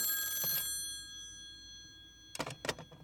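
A telephone rings with a bright, metallic trill, one burst at the start, then a quiet gap before two more rapid ringing bursts close together near the end, clear.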